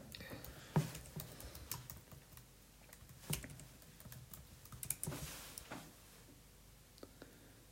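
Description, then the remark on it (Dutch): Quiet, irregular tapping of keys on a computer keyboard while googling 'smoke chair', a steady run of soft clicks with a few sharper strokes, with no talking. “Maar wil je nog eens één ding googlen?”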